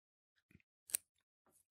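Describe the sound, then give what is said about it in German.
A single sharp, crisp snip of scissors cutting through a basil stem at a branching point above the leaf axils, preceded and followed by faint rustling and small handling clicks in otherwise quiet surroundings. “ähm, mit den Fingernägeln oder mit einer Schere oder so, das abzwicken. Das mache ich jetzt mal hier an einer Stelle.”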